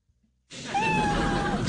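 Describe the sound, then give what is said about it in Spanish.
An adopted pet cat lets out one long, drawn-out meow, loud, after a brief moment of near silence. No voices are heard. “En este momento tenemos adoptado un gato, no le tenemos nombre, simplemente miau”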